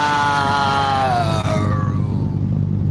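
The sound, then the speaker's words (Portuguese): An electric fan held at someone's face blows straight into the microphone, making a loud, steady low rumble of buffeting air. A wavering whine slides downward in pitch over the first half before fading. “Tá, agora tira o ventilador da cara, vai.”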